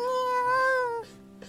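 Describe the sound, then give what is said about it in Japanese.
A single drawn-out meow from a white cat outside a window as it scratches at the window screen, clear, lasting about a second with a gently rising then falling pitch before fading into near silence. “すると外から何か音がするカーテンを開けると窓の向こう側で綺麗な白猫が鳴きながらカリカリと網戸を引っかいていた”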